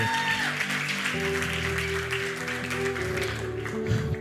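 A crowd claps steadily for about four seconds for a person, a dense, continuous patter of applause over sustained keyboard-like music chords playing underneath.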